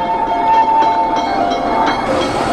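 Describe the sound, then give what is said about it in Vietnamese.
A tram in Hanoi rolls along its rails with a steady metallic hum and regular clacking of wheels, fairly loud, with no voices. “là tiếng tàu điện len keng”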